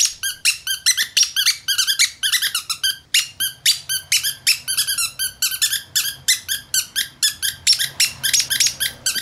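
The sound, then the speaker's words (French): A dog chews a squeaky children's toy, producing rapid, repeated high-pitched squeaks in an irregular rhythm, loud, with no talking throughout. “C'est un chien qui mordille un jouet pour enfant qui fait poète poète et ça fait ça.”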